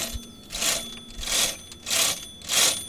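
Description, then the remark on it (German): An old twist-turn mechanical doorbell on an old front door rattles out four brisk, metallic bursts at an even rhythm, with a quiet hum underneath and no voices. “Den alten Klingelton von der alten Haustür.”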